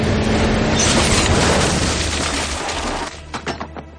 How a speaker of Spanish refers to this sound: pierde el control del coche. Se encuentra contra un pilar.